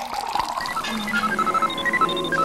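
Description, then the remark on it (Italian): Water runs from a tap into a container, taking a sample of tap water for analysis, a steady splashing pour whose tone climbs as the vessel fills. Moderately loud, with no one speaking. “prendine un campione dal rubinetto e facciamolo analizzare all'ipercomputer.”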